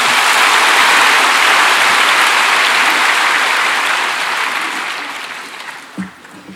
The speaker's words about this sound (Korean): 나오시기 나오실 때 우리 박수로 환영하겠습니다.